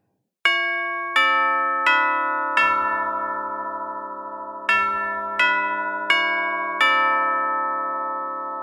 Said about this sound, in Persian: یهو یکی زنگ در میزنه.